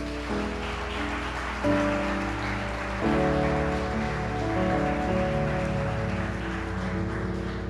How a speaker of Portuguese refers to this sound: Pode dar uma salva de palmas a Deus.